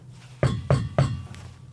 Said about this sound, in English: That's me knocking on fake wood.